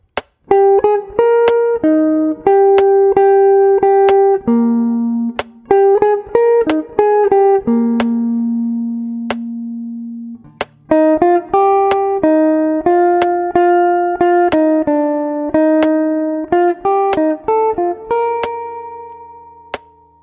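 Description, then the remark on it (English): Sharp metronome clicks, set on beats two and four, tick at a steady, sparse pace while a melodic instrument is practiced with sustained notes and chords over them, with a pause in the middle. “I'm going to do it with a metronome. I'm going to have the clicks on beats one, uh, two and four.”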